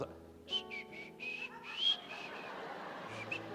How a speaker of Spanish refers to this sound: No, yo solo estoy chiflando.